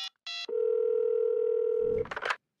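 In a scene from the Disney Channel cartoon Big City Greens, the character Cricket dials random phone numbers to reach the NHL commissioner: two brief beeps give way to a steady, low telephone dial tone for about a second and a half, then a quick flurry of dialing tones and clicks cuts it off.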